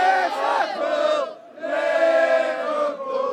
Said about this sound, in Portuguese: da gente ter torcedores é, cantando, se aglomerando em torno do ônibus, não só para tirar foto, mas para apoiar o time também, já é uma grande diferença de outras chegadas de ônibus que a gente vê aqui na Inglaterra.